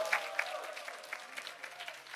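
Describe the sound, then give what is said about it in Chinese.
A church audience at Fuxing Church (复兴堂) bursts into applause and cheering for its Bible-reading groups, a dense steady patter of clapping with occasional brighter whoops rising above it, sustained at moderate volume throughout. “本来是一千一百人，明年一月一号开始，总共加起来有四百三十五组，有一千三百零五位一起读圣经，给复兴堂欢呼一下！”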